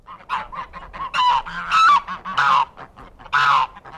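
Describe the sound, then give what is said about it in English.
A flock of geese on a farm outside a city honking loudly and continuously, overlapping calls rising and falling in bursts, with no voices. “Outside the city, ecologist Manuel Guerra lives away from the pollution on a farm with a flock of noisy geese and some rescued deer.”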